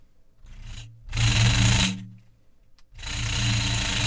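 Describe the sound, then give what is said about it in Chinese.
A finger rubs across the skin of a pandeiro (Pandero) frame drum, producing a buzzing, rasping drone with a low, vibrating tone. A faint brief stroke is followed by two loud sustained rubs, with no talking. “然后再来一个呢，会是比较特别的，就是我们用呃我们的手指头去摩擦骨皮，会有一个震动的声音。”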